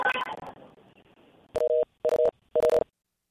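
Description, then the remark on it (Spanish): A brief burst of crackly line noise as a phone call drops, then a busy tone: three short, loud, steady beeps repeating at an even pace with silent gaps between them. “Se están cayendo, se están cayendo.”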